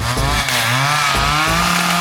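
A chainsaw engine roars loudly, revving in a steady buzzing drone whose pitch swells and dips a couple of times over two seconds, with no voices.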